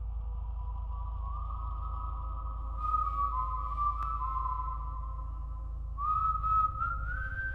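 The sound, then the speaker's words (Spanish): An eerie, wavering whistle drifts in long sustained tones, rising and gliding in pitch over a steady low rumble, heard just on the other side of a window as a blind is raised. No one speaks. “Escuché el chasquido cuando comenzaron a levantarse y escuché el silbido justo al otro lado de la ventana.”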